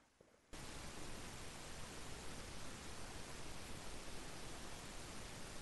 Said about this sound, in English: Okay, we're not hearing you. We're hearing a hiss. Oh, sorry about that. My my mic uh, got shut. Off.